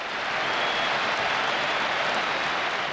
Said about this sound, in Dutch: En er komt een applaus weer.